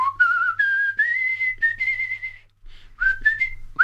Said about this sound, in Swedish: Kan du inte vissla lite för oss?